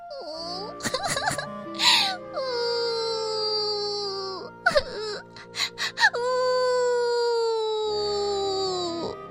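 An eerie, drawn-out crying wail rises and falls in long sliding tones in a foggy forest, broken by short sobbing catches and gasps in the middle, then swells into another sustained, high moaning cry. No one speaks.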